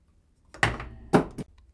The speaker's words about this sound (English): Oh man, I apologize, guys. I was moving around. I knocked a couple of things over.